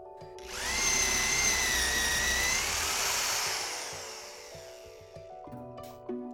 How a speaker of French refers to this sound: Il reconnaîtrait ce son entre mille c'est le bruit de l'écorce qui se fracasse au contact du métal, un trou qui se perce.